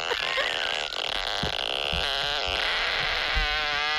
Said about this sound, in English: you know the app basically it's a it's a sound machine and you just pick from the toilet paper roll one of the fart sounds